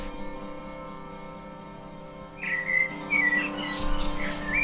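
Soft music from a new song plays steadily, and about halfway through bright bird chirps that are part of the song join in, short high twittering calls repeating over the gentle instrumental backing.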